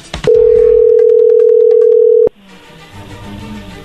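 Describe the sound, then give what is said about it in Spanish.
A loud, steady telephone dialing tone holds a single mid pitch for about two seconds, then cuts off abruptly, leaving quiet background noise. “Ahí está marcando, no hagan ruido.”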